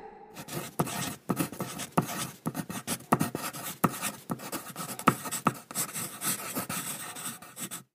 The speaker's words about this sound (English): Hmm, if you said that is a pencil writing, then you are correct.